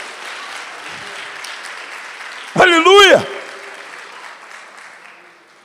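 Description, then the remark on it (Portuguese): An audience applauds in praise of God in a steady wash of clapping. Midway a single voice shouts a short exclamation over it, and the clapping gradually fades toward the end. “Levanta a sua mão, aplauda Ele, glorifica Ele por isso.”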